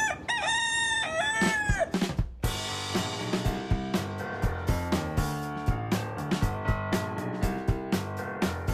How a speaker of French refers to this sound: Cocorico Kikiriki Kikiriki